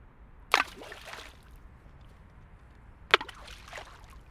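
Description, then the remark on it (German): Water of the Aare river laps against the bank in two distinct sloshing splashes a few seconds apart, each trailing off into a soft wash over a low, steady background rumble. “Ich laufe am Ufer der Aaren entlang.”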